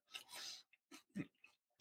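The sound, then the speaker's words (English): Crisp crunching of bagged brick oven pizza being bitten and chewed, a few irregular bursts of crackle with brief pauses between, no talking over it. “All right, great crunch.”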